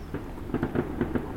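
Gunshots fired into the air crack out in a quick, irregular volley of five or six muffled pops over a low background rumble, with no voices in the moment.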